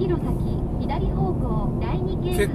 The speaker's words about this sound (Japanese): ちょっとうるさくてすいませんねちょっとまあ旅の途中なもんで車で運転してるんで